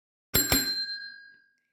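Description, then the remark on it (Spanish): A bright bicycle-style bell rings twice in quick succession, then its metallic tone rings on and fades out over about a second, alone. “Hoy, este episodio de retorno es breve y el timbre ha vuelto a nuestras vidas.”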